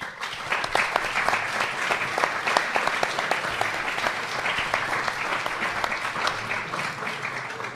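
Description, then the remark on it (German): A live audience applauds steadily, dense clapping filling the whole stretch at an even, fairly loud level with many overlapping sharp claps and no speech. “Applaus.”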